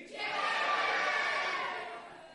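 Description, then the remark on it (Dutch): An audience in a full hall, after a count of three, shouts their own names all at once in a loud, jumbled burst, many people yelling different words together for about two seconds before it fades slightly. “Als we nu tot drie tellen en jullie roepen jullie, allemaal jullie naam, dan ken ik die ook.”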